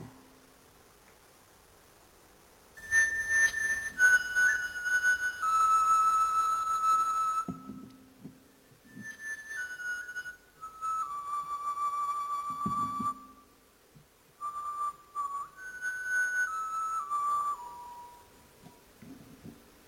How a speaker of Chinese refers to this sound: 这就是用那个八千年前真的骨笛演奏的乐曲，所以这个发现，在世界上引起轰动。